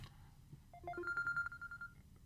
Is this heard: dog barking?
no